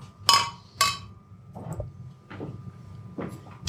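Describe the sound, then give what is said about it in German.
Three glasses clink together as three men toast, two bright ringing chimes, followed by softer knocks and rustling as the glasses are lowered, with no talking. “Das war jetzt ein Dreiklang.”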